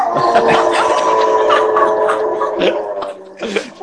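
A dog whimpers and whines in a steady, high-pitched drone, broken by short sharp yips. It sounds fairly loud, carrying on without pause for several seconds.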